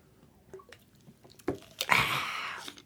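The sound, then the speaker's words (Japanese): Sparkling water being poured and sipped as a toast: a few soft clicks and a knock, then a bright, fizzy hiss of liquid lasting about a second, with quiet wet sounds trailing off. No talking. “ょっとスパークリングウォーターで乾杯”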